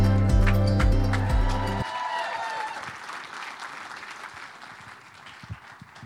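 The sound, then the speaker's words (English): Steady audience applause at City Hope Church welcoming a guest speaker, a dense crackle of many hands clapping that slowly thins out. A held musical chord sounds beneath it at the start, then cuts off. “So let's give a big City Hope welcome”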